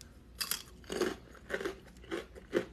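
Someone crunching pita chips, with about five crisp, bursting bites spaced roughly half a second apart in a steady chewing rhythm. No one speaks.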